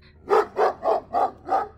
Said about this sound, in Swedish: Ni, ni väcks båda av Glaze skall. Det är fortfarande mörkt ute, ni känner jag inte sovit särskilt länge. Men det står inuti ditt rum, eh, Simon, och skäller och kollar mot taket